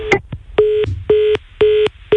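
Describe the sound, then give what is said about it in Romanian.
A phone line to a radio caller in Buzău cuts out, followed by a regular series of repeating electronic tones, each a steady pitched beep lasting about a quarter second, evenly spaced like a redial or busy signal. “Încercăm să refacem această legătură telefonică.”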